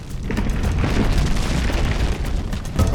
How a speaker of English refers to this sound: The rumble grew louder. It wasn't just the rocks around Zipacna that were moving, everything was moving the cave, the ground, the mountain. The trees whipped back and forth above them.